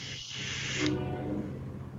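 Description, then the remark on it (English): A steady, breathy hiss of vapor being exhaled from a vape runs for under a second, then cuts off, leaving a low background hum. No one speaks. “Let's have a vape break.”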